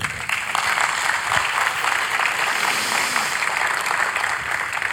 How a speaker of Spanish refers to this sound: Un aplauso para el Rey.